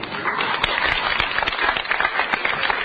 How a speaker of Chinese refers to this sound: 掌声不十分激烈，就不准备说了。